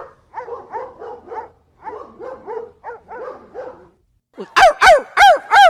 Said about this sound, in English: Release the hounds.